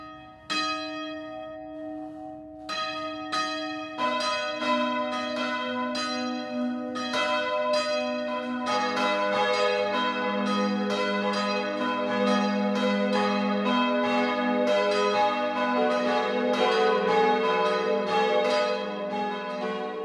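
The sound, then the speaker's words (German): The three bells of the Catholic Marienkirche in Kreußen, Bayreuth district, ring the 12 o'clock midday peal from its freestanding bell tower, striking in overlapping succession and building into a dense, continuous clangour with long ringing overtones. No voices are heard. “Das Mittagsläuten kommt heute aus Kreußen im Landkreis Bayreuth.”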